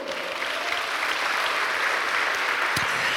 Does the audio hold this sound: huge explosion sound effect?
no